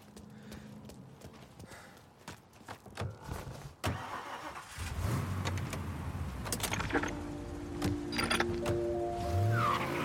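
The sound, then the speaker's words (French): A few sharp clicks and rattles give way to a car engine starting up, then a steady rumble as it revs and pulls away, with no voices. “tu conduis.”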